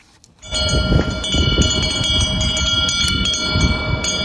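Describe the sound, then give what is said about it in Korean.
A wind chime swaying under the eaves on a very windy day rings with repeated metallic strikes whose bright tones linger and overlap, set against a steady rushing of wind, fairly loud throughout. “아, 바람이 몹시 뭐 부는 날 처마 밑에 그 풍경 소리입니다. 풍경이 흔들리면서 소리가 나네요.”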